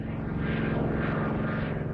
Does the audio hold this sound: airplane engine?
yes